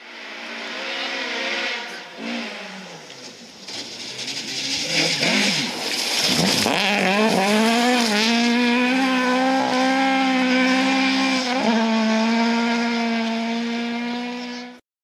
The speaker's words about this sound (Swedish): det är nog fan den fränaste rallymotorn som någonsin gjorts tror jag vilken sång det är den. ja, det, det lät ju gött i skogen när du kom där i alla fall.